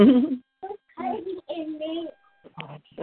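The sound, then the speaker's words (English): A baby babbles in a few short, high-pitched vocal bursts separated by brief pauses, moderately loud, with no adult talking over it. “I hear the baby.”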